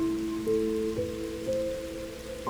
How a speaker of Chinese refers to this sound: 而你需要做的，就只是聆听雨落下的声音